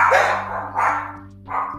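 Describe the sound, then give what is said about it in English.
A dog barks three times at a steady pace, each bark full, over a faint low electrical hum in the background. “That's security team doing what they do best, barking nothing.”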